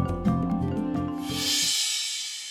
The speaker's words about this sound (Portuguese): Ah, gente, olha o papagaio outra vez.